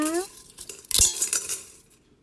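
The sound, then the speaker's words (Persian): Dry noodles being broken into a metal pot to make soup, snapping and rattling in a quick burst of crackling breaks and clinks, fading out after about a second, preceded by a brief high tone. “خب حالا بیا که رشته ها رو با هم خورد کنیم تو قابلمه واو دیگه جالبه نه”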